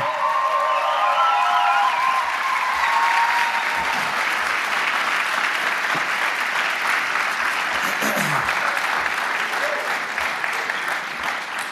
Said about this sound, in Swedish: Ge dem en riktigt stor applåd. Det här är hjältar.